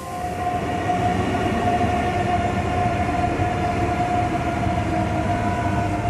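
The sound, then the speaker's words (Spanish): Steady ambience at the Zamora train station in Spain at 7:30 in the morning, with a train bound for Madrid idling, a continuous mechanical rumble and a sustained tonal hum holding at an even, fairly loud level throughout, with no talking. “Estoy en la estación de trenes de Zamora.”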